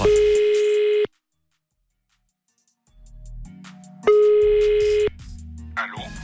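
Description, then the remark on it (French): The ringback tone of an outgoing phone call to a friend: two loud, steady one-second electronic beeps about three seconds apart, the gap silent at first, then filled with muffled low background sound and faint voice. “Lundi, j'ai voulu appeler pour euh, démarrer, j'ai voulu appeler euh, un pote, un pote ce lundi pour avoir une info par rapport à un match de foot qui avait eu lieu ce week-end.”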